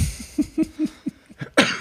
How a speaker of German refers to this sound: Gesundheit. Danke.